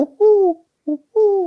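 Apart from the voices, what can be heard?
owl hooting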